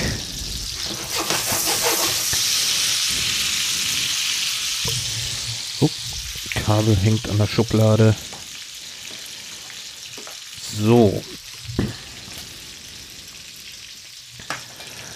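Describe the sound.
215 grams of zucchini sizzles steadily in a hot pan, a continuous hissing crackle running the whole time, with a man speaking briefly over it in the middle.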